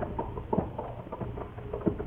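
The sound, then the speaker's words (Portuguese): Irregular galloping hoofbeats thud in an uneven, stumbling rhythm, muffled, with a low rumbling background and no voices. “Mal havíamos andado um pedaço, começámos a ouvir em nossa perseguição um apavorante tropel, soturno, descompassado e irregular.”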